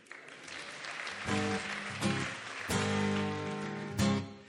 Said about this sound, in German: Kleiner Applaus für ihn.